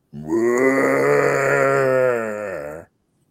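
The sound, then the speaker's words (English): A voice imitates a stereotypical monster growl for a snowman in a backyard killer snowman movie: one long, loud, low rumbling cry held steadily for over two seconds before cutting off abruptly, with no other talking. “Okay, well they they went to go with like stereotypical monster growls so the snowman will just be walking around with his silly, cute little snowman feet going.”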